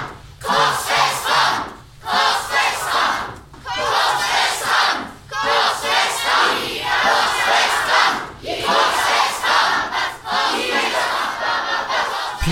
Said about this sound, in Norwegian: Pilatus hørte på ropene, og han hadde ikke mye valg.